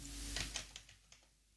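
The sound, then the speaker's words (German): Keys being tapped on a keyboard, about half a dozen quick, irregular clicks that soften toward the end. The typing is fairly quiet, with no voices. “Ich kann auch nicht mal mehr tippen in dem Teil.”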